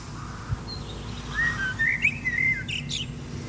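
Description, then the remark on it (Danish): A blackbird whistles a short, tune-like phrase of clear, sliding notes that mimics a pop song melody. It is distinct over a steady low background rumble, with a few brighter chirps at the end. “Var der den ikke en solsort, der sang øh, …?”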